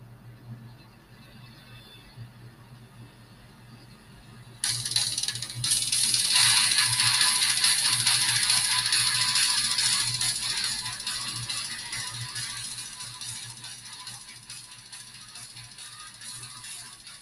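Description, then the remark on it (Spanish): After a few seconds of low hum, a death metal song bursts in abruptly: a dense, harsh wall of distorted, relentless noise that stays loud and unbroken, easing only slightly toward the end. “Básicamente suena así, cualquier canción de death metal suena así.”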